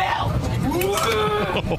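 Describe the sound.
A woman's voice lets out a short, loud moo-like call imitating a cow, rising and sliding in pitch over a noisy, crowded background, as she is being kicked off an airplane.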